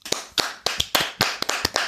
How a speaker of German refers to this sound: Herzlichen Dank und ähm, ja, auch dir sei unser Applaus gewiss.